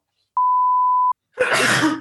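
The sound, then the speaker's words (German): A steady electronic beep lasts under a second, then after a short pause a loud, breathy sneeze bursts out, with no talking. “Gesundheit.”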